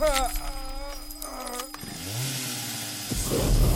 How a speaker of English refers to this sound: Ah, a katana chainsaw with flamethrower attachment. Cute.